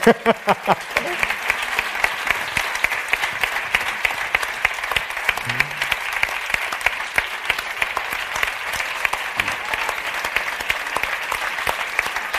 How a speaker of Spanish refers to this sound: Hombre, pero que, los que os venid, que os vean, que os aplaudan.